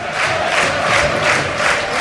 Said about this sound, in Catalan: Sí, sí, se n'està anant ell sol des de la bancada cap al vestidor, els bucaneros la claven i també hi ha molts seguidors, Brugui del Rayo, drets a les seves localitats, que criden Mitchell, Mitchell, aquests aplaudiments que sentiu són per ell.